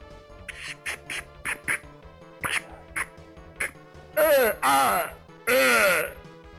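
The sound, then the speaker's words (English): A voice imitates Street Fighter fighting-game attack noises: a quick run of short, punchy grunts, then three long, strained, warbling shouts, loud. “Were you just making Street Fighter noises?”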